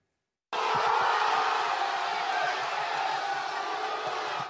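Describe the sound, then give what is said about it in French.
A crowd in a bar in Marseille suddenly erupts into loud, sustained cheering and shouting as Théo Hernandez opens the score in the fifth minute of the match, a dense roar of many voices that stays at full strength for about four seconds before cutting off. “Dès la cinquième minute de jeu, c'est l'explosion de joie dans ce bar marseillais.”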